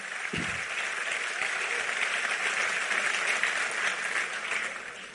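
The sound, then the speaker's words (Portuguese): An audience applauds steadily for about five seconds, a dense wash of many hands clapping at an even, fairly loud level with no voices standing out. “aplaudo ele aí, você também.”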